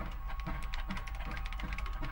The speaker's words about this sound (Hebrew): אה, טוב, אני מקליד.